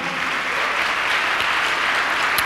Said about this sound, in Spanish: ¿Cuántos se gozan por eso, amado hermano? Dele un aplauso a Cristo, a su nombre, gloria.